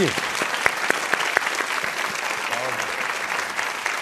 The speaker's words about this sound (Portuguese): Pode aplaudir Flávio Baurac!